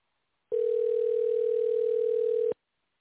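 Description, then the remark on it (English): A single steady telephone ringing tone as an outgoing call is placed, a flat, clear electronic purr lasting about two seconds, then silence. It is loud and stands alone with no voices. “I am calling my co-host.”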